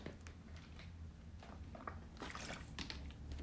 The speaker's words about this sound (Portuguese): Ok, estou a beber água.